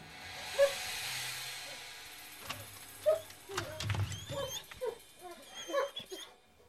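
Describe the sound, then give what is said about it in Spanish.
Dogs whimper and yip in short, high-pitched bursts as their owner greets them, scattered irregularly over a soft background hiss, with a few rustling movements in between. “Luego de saludar a sus perros,”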